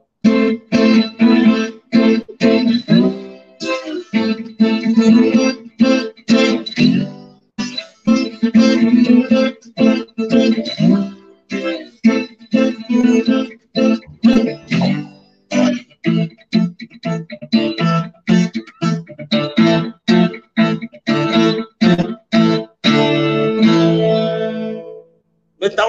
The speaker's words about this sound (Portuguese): É que agora eu não tô usando mais distorção, porque tem outra guitarra, né? Mas eu tocava distorção na viola.